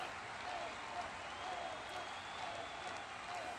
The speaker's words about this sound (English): Yuzaka getting a huge ovation here from the crowd at the Chaos Compound